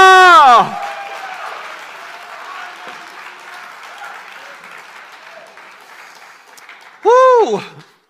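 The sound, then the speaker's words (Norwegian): An audience claps steadily for their neighbours and themselves after a worship song, for several seconds, the applause gradually thinning, framed by two loud, swooping cheers, one at the start and another shortly before the end. “Gi naboen din deg sjøl en stor applaus.”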